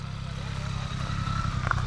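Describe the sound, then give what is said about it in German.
Motorcycle engines rumble steadily, a deep continuous idling throb at even loudness, during a motorcycle outing and motorcycle church service at the ruined church in Spindeltal, Eichstätt district, organized by the Catholic rural people's movement. “Der Motorradausflug mit anschließendem Motorradgottesdienst in der Ruinenkirche Spindeltal, organisiert von der katholischen Landvolkbewegung.”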